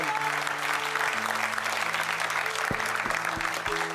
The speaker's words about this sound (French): Et si tu le crois, acclame le Seigneur. Si le Seigneur t'a parlé, donne la meilleure acclamation au Seigneur.